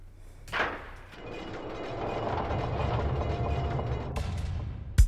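A steady, low rumbling background continues until the door of a tech booth is shut with a single sharp thud right at the end, with a softer knock near the start. No one speaks.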